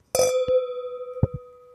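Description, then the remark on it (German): Wine glasses clink together in a bright, ringing toast, one sharp chime followed by a lingering tone and a couple of softer taps, with no talking. “Prost”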